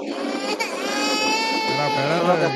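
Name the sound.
voice imitating someone crying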